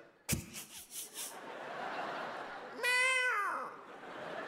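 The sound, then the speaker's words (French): Someone imitates a cat, as if one cat approaching another, with a drawn-out, falling meow near the middle, clear, after a sharp click and a few short breathy vocal bursts. “Je n'ai jamais vu un chat s'approcher d'un autre chat, faire et l'autre faire”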